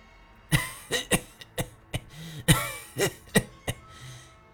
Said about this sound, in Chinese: 把烟叶塞紧实，点着了，放到他手里。他满意的吧嗒了一口，剧烈的咳嗽了起来。